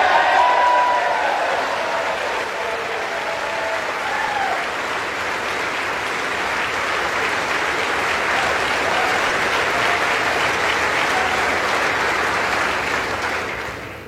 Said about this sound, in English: if you couldn't hear it because they started cheering, the first piece of, of business they'll take up is repealing the funding for 87,000 new IRS agents.